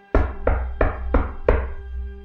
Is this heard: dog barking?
no